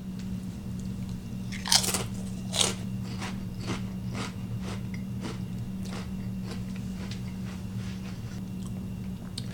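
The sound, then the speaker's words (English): Crisp crunching as new Takis Waves potato chips are bitten twice, then chewed in a steady rhythm of sharp crackles over a low, constant background hum, with no talking. “Three, two, one, taste test. For the first time, the new Takis waves.”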